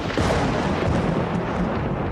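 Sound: lightning strike thunder crack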